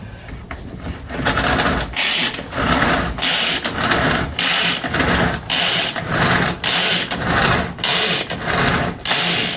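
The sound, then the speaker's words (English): A pull-string food chopper is worked steadily to chop onions and jalapeños, each tug making a loud, whirring, ratcheting burst of blades spinning. About a dozen even pulls in a brisk rhythm, with no talking. “I just love this chopper, you guys. It makes work so much easier.”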